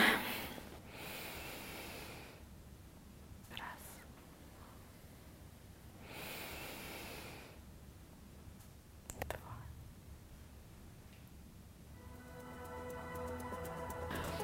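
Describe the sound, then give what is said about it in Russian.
Slow, deep breaths of a person meditating, two long airy inhales and exhales separated by quiet pauses, with a few soft rustles and faint clicks toward the end. “Давай помедитируем. Давай. Уже спокойно, да, посидим уже. Угу. Почувствуем свое дыхание.”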